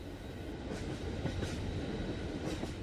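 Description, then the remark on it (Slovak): A train carriage on the way home from Mlynská dolina rumbles steadily along the rails, with a constant low roar and faint periodic clacks from the wheels, heard from inside the carriage, no voices. “Za denného svetla a s dverami otvorenými do Korán si rýchlo zbalí veci, odhlási sa na ubytovacom oddelení, Mlinskú dolinu nechá za chrbtom a sadne na prvý vlak domov.”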